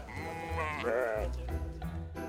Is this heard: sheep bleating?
yes